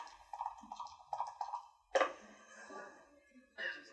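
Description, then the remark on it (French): A sharp clatter of lucky dice tumbling and knocking on a hard surface, following some murmured talk, with a brief settling rattle afterward and another small knock near the end; the roll comes up double six. “Dans ce cas, j'userai mon privilège de challenger et je jouerai avec vos dés porte-bonheur.”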